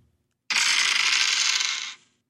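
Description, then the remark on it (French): Dice clatter and roll across a table in one continuous rattling burst of about a second and a half, fairly loud, then quickly settle to silence. No voices. “Je vais de ce pas lancer les dés.”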